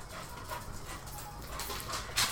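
A dog named Gunner pants in quick, breathy bursts, with a faint whimper mixed in, ending in a sharper huff; no one speaks.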